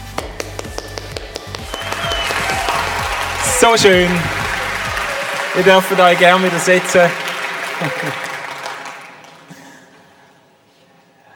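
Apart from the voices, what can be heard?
roaring audience applause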